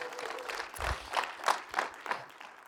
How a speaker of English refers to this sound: You better clap your hands and thank God for his word on this Sunday night.